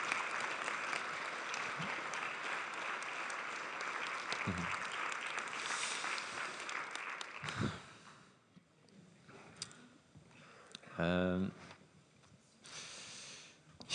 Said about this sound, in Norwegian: Dere må gjerne klappe han fram, for det gjør det alltid så mye lettere å eh, komme fram hit og snakke.